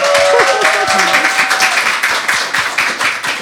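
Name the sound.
audience applause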